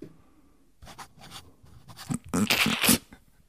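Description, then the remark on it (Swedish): Pen or pencil scratching across a small paper sushi receipt as someone practises an autograph, in a series of short, brisk strokes, quiet at first and growing louder and denser toward the end, with no talking. “Då skriver jag nu.”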